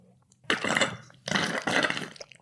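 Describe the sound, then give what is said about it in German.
Someone slurps a cocktail in three loud, hissing, gurgling pulls, a longer first one followed by two in quick succession, with no talking. “Ich bin gerade am Cocktails schlürfen.”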